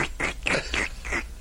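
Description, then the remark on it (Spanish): A person imitates a baby suckling with about five quick, wet sucking smacks in a steady rhythm, with no talking. “¿Ese es el ruido de lactar? Onomatopeya de lactar.”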